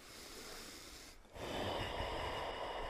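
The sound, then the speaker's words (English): Forceful breathing through the nose, loud: one long rushing breath, a brief pause, then a second, stronger breath that continues to the end. No talking. “Put that nose to work.”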